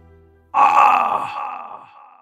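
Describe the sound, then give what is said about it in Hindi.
A voice imitates a boy's cry of pain as his knee strikes a large stone on a mountain path: one loud, sudden, drawn-out vocal wail that starts abruptly and fades slowly over about two seconds, heard alone. “तो उसका घुटना जा करके उस बड़े से पत्थर पर टकरा गया तो फिर उस बच्चे के मुंह से एक चीख निकली”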